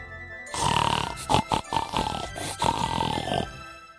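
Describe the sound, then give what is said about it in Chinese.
Little pig grunting: a run of rough, nasal grunts and snorts, some short and choppy, others drawn out, lasting about three seconds at a steady, fairly loud level with no talking. “哼哼哼哼哼。小猪好想荡秋千呐，谁来帮助小猪呢？”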